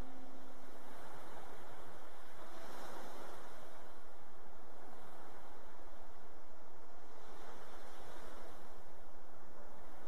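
Steady rushing ocean surf with waves swelling and breaking on the shore at intervals, a continuous broad hiss of water that rises and falls gently. No voices are heard.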